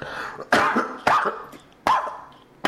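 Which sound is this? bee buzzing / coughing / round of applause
coughing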